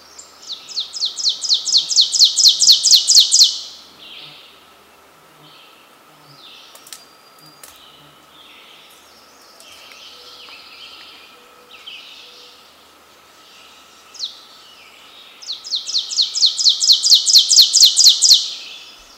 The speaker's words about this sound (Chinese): 那我们来听一下橙顶躁东的叫声，然后一起来欣赏一下作者是怎么描写声音的。